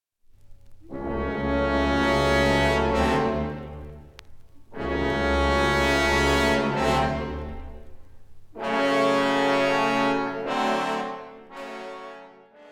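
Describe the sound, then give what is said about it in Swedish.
Orchestral symphonic music, Finlandia: three long, loud, deep chords, each swelling and held for a few seconds before a short break, with no voices. “Nu ska vi höra på Finlandia som någon sagt kunde varit nationalsången.”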